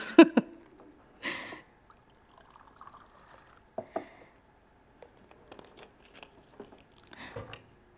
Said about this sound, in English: And if you can see, I'll just put this salt in this glass here and add some water to it. Just bear with me.